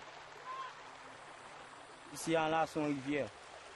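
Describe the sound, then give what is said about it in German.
Steady, hissing rush of the flowing Artibonite River in Haiti, beside a former UN camp whose sewage canal carried toilet waste into it, runs throughout, even and unbroken, with a voice briefly speaking over it toward the end. “Die Minusta hat einen Abwasserkanal benutzt, durch den alles Mögliche aus der Toilette direkt in diesen Fluss hier gelangt ist, darunter auch Fäkalien.”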